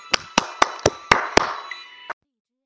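Audience applause welcoming a story-session mentor who will analyse a short story comes as a steady, rhythmic run of about seven sharp claps over a soft hiss of background clapping, then cuts off abruptly. Nobody speaks.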